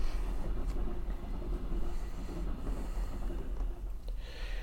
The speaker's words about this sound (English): I'll oh, wait for this train.